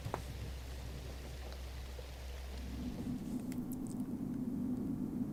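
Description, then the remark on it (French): Heavy rain pours down in a steady, dense hiss, after two weeks of rain, with a deep low rumble underneath for the first few seconds before the downpour swells slightly louder. No one speaks. “Ça fait deux semaines qu'il pleut. J'en peux plus de ces rideaux de pluie.”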